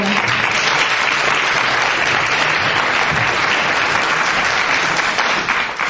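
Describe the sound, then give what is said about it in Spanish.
An audience at a charity event claps steadily for about six seconds after a speaker is introduced, a dense, loud wash of many hands with no break in the rhythm and no voices rising above it. “Un aplauso para todos.”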